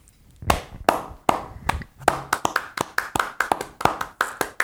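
A pair of hands claps sharply, starting with a few spaced claps and then settling into a quicker, steady rhythm of about twenty claps, with no talking.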